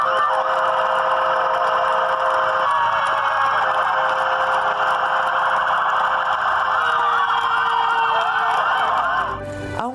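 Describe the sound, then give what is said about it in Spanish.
Several hospital sirens wail together in a farewell tribute to a staff member, a loud, sustained chorus of overlapping rising and falling tones, holding steady for the whole stretch before cutting off abruptly near the end. “En un homenaje conmovedor fue despedida entre las sirenas del hospital y los aplausos y lágrimas de médicos, enfermeras y todo el personal, en donde trabajó más de 30 años.”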